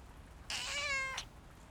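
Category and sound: animal, kitten meowing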